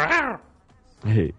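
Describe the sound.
A voice imitates a leopard with two short vocal bursts: a falling, strained cry followed after a brief pause by a low, rough growl.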